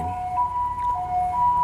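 An ambulance siren wails in a steady two-tone pattern, alternating between a higher and a lower pitch, loud and continuous over faint traffic rumble, as an ambulance passes along a main road in a residential area, with no one talking.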